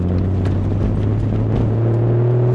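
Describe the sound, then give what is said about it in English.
Inside a Nissan Skyline as it pulls away on an advanced green at the Spadina and Front Street intersection in Toronto: a loud, steady engine drone fills the cabin, its low hum edging up in pitch as the car gathers speed. No one speaks. “Everybody's staring at me because I'm driving in a Nissan Skyline, but.”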